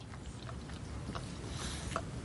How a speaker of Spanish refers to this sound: La anciana está sentada en el rellano. Señora de Broglie, está en el primer piso. Y usted vive en el tercero. Su perrillo se lame junto a ella.